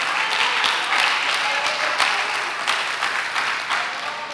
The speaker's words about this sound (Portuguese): Pode aplaudir forte a palavra.